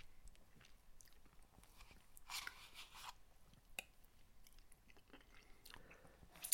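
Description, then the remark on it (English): Someone chewing food with wet, crunchy mouth sounds, a burst of louder crackly chewing in the middle and scattered smaller clicks and bites throughout, with no talking. “It's rude talking when someone's eating.”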